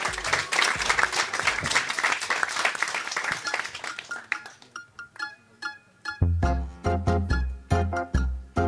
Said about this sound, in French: Ce soir, il va jouer avec ses mains pour nous interpréter lundi l'un des inédits de son premier EP dans Foule Sentimental en live avec les applaudissements de la foule très sentimentale.